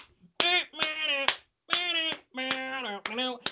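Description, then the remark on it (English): About six sharp hand claps land at uneven intervals over sustained, tonal vocalizing that sounds like singing or drawn-out voiced sounds, with short gaps between phrases. “like how I'm like clapping like one of those porns where they're like all the girls are clapping around like male dancers.”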